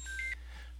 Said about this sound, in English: Sorry about my phone going off in the background. I guess telemarketing is still, still alive and well.